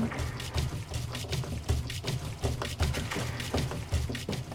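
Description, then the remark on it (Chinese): A washing machine on a balcony filling with water during a wash: a steady, rushing hiss of inflowing water over a low, pulsing rumble, continuous and moderately loud, with no voices. “我很多时候都是都是就是洗衣机在阳台洗衣服，我只是靠听。去感受它洗到哪一步。”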